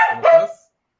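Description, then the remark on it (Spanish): One short, sharp dog bark, a brief yelping burst that cuts off quickly and leaves silence afterward. “Eh, no, ya era perro.”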